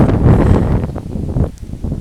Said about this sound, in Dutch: Het waait heel hard.